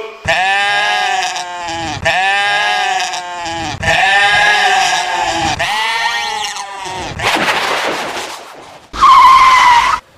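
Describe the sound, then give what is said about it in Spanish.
Loud, drawn-out squealing of tires braking automatically repeats four times in quick succession, blended with goat bleats, then a rough noisy burst and one final sharp squeal. “frenó automáticamente.”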